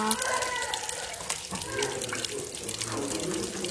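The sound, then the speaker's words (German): Whisky pours steadily through a pipe into a wooden barrel, a continuous splashing, gurgling stream that runs without a break, with faint voices murmuring in the background. “Wie viel kommt da eigentlich noch rein? Ja, läuft und läuft und läuft.”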